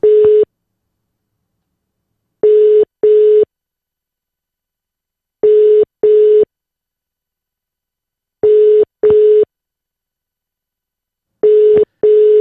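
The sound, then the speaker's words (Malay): A telephone ringing tone as a call is placed: a steady mid-pitched electronic tone in short paired bursts, repeating about every three seconds, with silence in between and no one talking. “Okey, kita call sekarang.”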